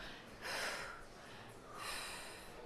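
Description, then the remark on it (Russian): Two strong, breathy recovery breaths, one sharp intake followed after a pause by another forceful breath, as someone demonstrates the breathing used in freediving after surfacing and after a breath-hold, with no talking. “Дышим мы после выныривания и после задержки вот так.”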